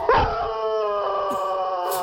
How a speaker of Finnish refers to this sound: Täältä kuulostaa kiimainen rakki. Joo. Mä vieläkin tulee vilun kun mä kuulen noin. Tuntuu, että ne on ihan tuossa korvan juuressa.